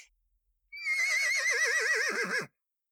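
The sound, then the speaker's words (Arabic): A single loud horse whinny, lasting nearly two seconds with a quavering, wavering pitch that drops at the end. No talking. “وقال الحصان”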